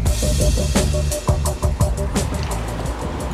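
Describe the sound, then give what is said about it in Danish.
An ordinary yellow commuter bus driving in Denmark, its steady low engine rumble and broad road noise filling the space, with a few brief rattles and knocks along the way and no voices. “Vi skal derfor ud og køre med spionbussen. Egentlig en ganske almindelig gul bus, men dens passagerer, i hvert fald nogle af dem, har jeg hørt er spioner.”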